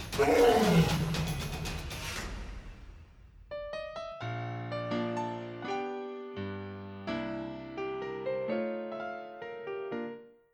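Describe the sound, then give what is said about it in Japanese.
A lion on the savannah lets out one loud, deep, rumbling roar lasting a few seconds, which fades and gives way to soft, melodic piano-like music. “The lion's roar echoed through the vast savannah, reminding all who heard it that true strength comes from within.”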